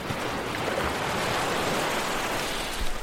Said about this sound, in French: Et après le bruit des vagues et le clapotis de l'eau